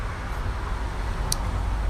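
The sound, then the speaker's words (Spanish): A car passes by outdoors, a steady low engine rumble and road hiss that fills the whole moment, with no one speaking. “Carro, lo siento.”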